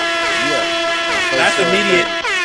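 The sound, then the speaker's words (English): A loud, sustained air horn blast holds a steady, brassy tone for the full two and a half seconds while voices whoop and shout over it. “That's immediate air horn.”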